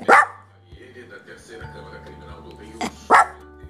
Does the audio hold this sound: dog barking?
yes